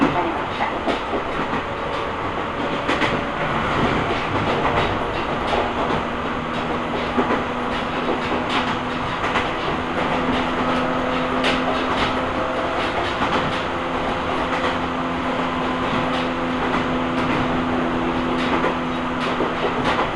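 An Omi Railway train in Japan, on the Takamiya to Hikone to Yokaichi route, rumbles steadily along the rails for the whole stretch, with wheel clatter, a low sustained motor hum and faint mechanical whines.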